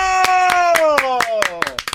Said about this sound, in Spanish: Me, alegra que ustedes me aplaudan a mí